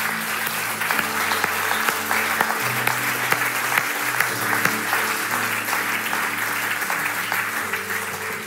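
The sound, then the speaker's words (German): A church audience applauds steadily to honor God for those who stood up and made decisions, a dense wash of clapping with scattered sharper claps, accompanied by sustained low instrumental tones beneath the noise. “Und alle anderen, Lasst uns für die, die aufgestanden sind, Entscheidungen getroffen haben, einen fetten Applaus machen, damit der Gott im Himmel geehrt wird und dass die Welt erschüttert wird.”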